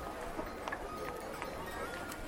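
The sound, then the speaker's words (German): Horses steered by a warmly bundled driver in winter cold clip-clop at an unhurried, fairly even pace, the hoofbeats soft over a steady low rumble of background noise. “Er steuert die Pferde mit absoluter Galanz, sowohl durch die Stadt als auch auf die Wege außerhalb.”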